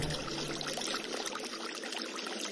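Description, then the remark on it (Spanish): Steady rushing water hitting stones and falling in cascades, a continuous splashing and gurgling with bright, bubbly texture and no voices, holding an even level throughout. “Escucho el sonido del agua al chocar entre piedras y caer en cascadas Las gotas salpican mi piel ardiente y me llenan de placer.”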